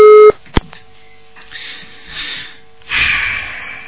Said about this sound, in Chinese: 哎呀，电话挂掉了。